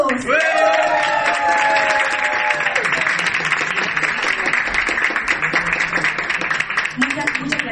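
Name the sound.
audience applause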